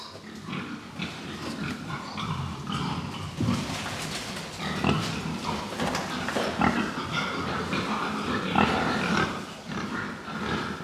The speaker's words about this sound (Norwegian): Og grisen som går ute her på Ekeberg, den har en veldig god helsestatus.